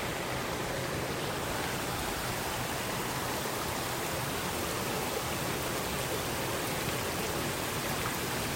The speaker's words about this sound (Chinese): 嗯，我在这里玩，我们站在这里，哇，好凉快。溪边 好舒服哦，听听水声吧。